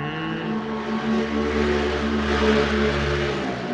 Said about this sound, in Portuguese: Até uma moto aí, ó, vocês estão vendo? É, é pô, isso aí foi o efeito, pô. Foi, é, é Akira. Isso aí é gravação de Akira.